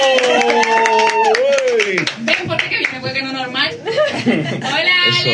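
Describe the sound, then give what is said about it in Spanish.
Quick, steady clapping from a small group, applauding a host's introduction of himself, runs through the whole stretch, mixed with loud voices, exclaiming and chuckling over the top. “Un aplauso a mi mismo.”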